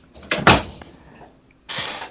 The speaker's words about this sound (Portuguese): Fechar a porta aqui.